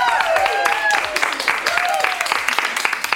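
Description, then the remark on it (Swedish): A small group of ten listeners claps and cheers at a long table in a room of Hotel Kung Karl on Stureplan, dense irregular clapping mixed with whoops and excited voices, lively and fairly loud throughout. “Ja, oh, vi firar vårt 400 avsnitt tillsammans med tio härliga poddlyssnare som låter så här.”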